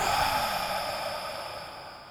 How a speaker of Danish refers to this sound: så man trækker bare vejret helt fuldt, helt op til halsen nærmest, så man har sådan luften helt op i halsen, og så bare ånder ud gennem munden.